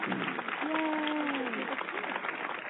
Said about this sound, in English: And with that, our self ingratiating applause. I've earned it.